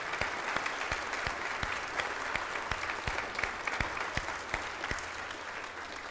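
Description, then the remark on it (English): An audience claps steadily in thanks to the choir, pianist and worship team, dense overlapping hand claps forming a continuous wash of applause with a few sharper claps standing out, no talking over it. “Let's show our thanks to each one of them.”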